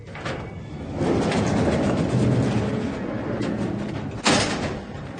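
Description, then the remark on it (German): The door of a garage belonging to an apartment rumbles open with a sustained low, rattling roll, ending in a sharp clunk as it stops, then a fading rumble. No one speaks. “Wieder stehe ich vor der Garage, die zu der Wohnung gehört, in die ich vor über zehn Jahren mit V gezogen bin. Mit dem Garagentor öffnet sich.”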